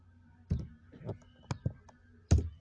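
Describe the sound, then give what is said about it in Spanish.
A handful of sharp clicks from computer keys and a mouse as someone presses Enter while entering salary subtractions in spreadsheet cells, spaced irregularly over a couple of seconds with brief pauses between presses, with no talking. “Le damos enter y ya no lo calcula.”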